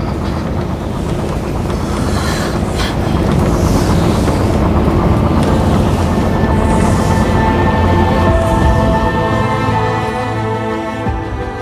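A maglev train rushes past with a steady, loud rumbling whoosh and a faint electric whine that holds throughout, with wind-like swells sweeping over the top and no voices.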